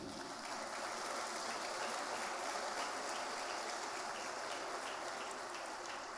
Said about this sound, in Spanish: Y yo quiero agradecer a los diáconos, diaconistas, servidores de protocolo de esta iglesia. Usted los ha visto. Es más, démosles un aplauso a los hermanos.